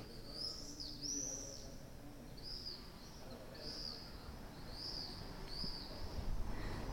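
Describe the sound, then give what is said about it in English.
Blue-coloured swallows in Rome chirping in a lively series of high, twittering calls, repeating every second or so over a steady low background hum, moderately loud. “So these are actually my favorite birds in Rome, I think.”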